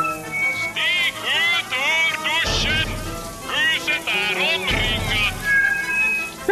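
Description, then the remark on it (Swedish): Shower water runs with a steady hiss throughout, while loud, agitated voices shout at someone to turn off the water and come out of the shower, with two heavier splashing surges partway through. “Kom ut ur duschen! Ingen blir skadad! Kom ut ur duschen! Sluta duscha!”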